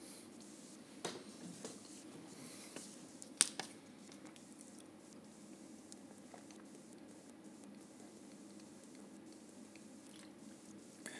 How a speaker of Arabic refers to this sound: كنت بشرب ميه بس